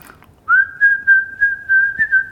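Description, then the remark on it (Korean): A person whistles a short tune, a clear sustained tone with several pulsed notes in a steady rhythm, fairly loud with no talking over it. “아까 휘파람도 살짝 불렀어요.”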